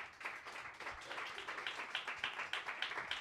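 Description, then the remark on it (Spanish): A crowd applauds steadily for a speaker, many hands clapping in a dense, continuous patter for a few seconds, with no voices heard over it. “Bien, aplausos por favor para Julio.”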